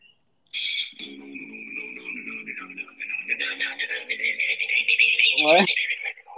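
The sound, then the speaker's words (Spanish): A single voice beatboxing, producing a continuous stream of warbling, buzzy electronic-style tones and sweeps rather than words, growing louder and busier toward the end. “Mira, pues ya que te hiciste eso, trata el de beatbox.”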